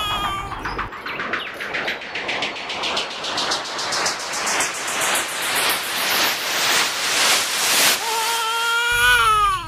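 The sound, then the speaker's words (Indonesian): An abandoned baby cries loudly and steadily for several seconds over a rapid pulsing texture and an eerie tone that rises in pitch, ending in a few drawn-out wails. No one speaks. “Suaranya kok seperti menyayat begitu sih pak.”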